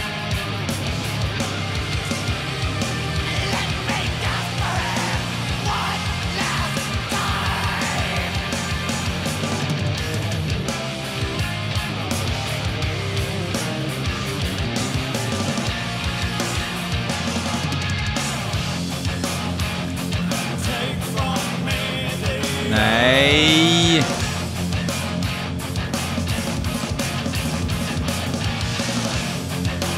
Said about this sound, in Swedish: Hur fan sjunger han? Det här är sån eh, black metal som folk tycker att riktig black metal är problematisk. De lyssnar på det här istället.